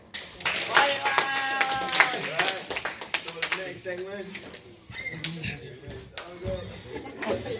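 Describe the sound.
A crowd claps steadily in a dense, crackling wash of many hands, loud at first and gradually thinning, with voices and cheering calls mixed through the applause, applauding a speaker after his speech.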